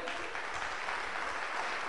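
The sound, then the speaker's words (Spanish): Steady audience applause fills the whole moment, a dense, even wash of many hands clapping at a constant loudness without pauses. “Aguántame ese aplauso, aguántame.”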